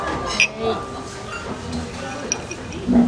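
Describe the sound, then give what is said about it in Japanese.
Glasses clink together in a toast, a few bright ringing taps scattered over a couple of seconds against the busy murmur of a crowded bar with people talking. “はい始まったじゃあ乾杯とりあえずは”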